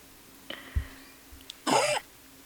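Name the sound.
sneeze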